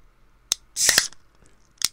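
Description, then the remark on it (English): A can of lager cracks open: a sharp metallic click, then a short bright fizzing hiss of escaping gas lasting about a third of a second, with another crisp click shortly after. No one talks. “And uh, let's crack it open, bros.”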